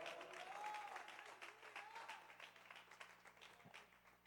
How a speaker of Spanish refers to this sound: ¿Alguien puede aplaudir al Padre en esta hora? Vamos a darle el aplauso más fuerte. Celebre como que lo dejaron salir después de dos meses encerrado. Vamos.